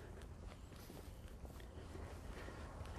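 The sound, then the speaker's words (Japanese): Soft footsteps of a person walking while live-streaming, a quick series of muffled steps at a steady pace over a constant low rumble of outdoor background noise. No one speaks. “普段からこうやって自分は歩きながら、え配信をしているので”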